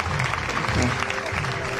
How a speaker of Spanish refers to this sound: Así que yo me gustaría daros un aplauso y que sabéis a todo el pueblo, la verdad. A toda esa generación.